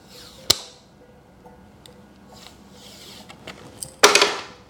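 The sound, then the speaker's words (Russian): A thick, bendable protective film, almost like glass, being peeled off the screen of a Chinese phone: a sharp snap, then faint scattered ticks, and finally a loud, brief crackling rip that fades quickly. No one speaks. “Ну, то есть видите, с каким она этим отдирается?”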